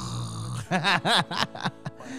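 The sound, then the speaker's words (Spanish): A voice imitates snoring with a few rhythmic, nasal rasping breaths in quick succession, loud, with no words spoken. “Y es cuando están roncando, ¿no?”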